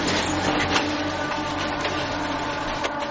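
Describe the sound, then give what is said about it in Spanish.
A heavy excavator grinds steadily through the demolition of the last shack of the Penamoa settlement in A Coruña, Spain, in September 1985, its dense mechanical roar continuous, with a couple of brief cracks and thuds of material breaking apart. “Estamos escuchando el momento en que una excavadora derriba la última chabola del poblado de Penamoa, en La Coruña.”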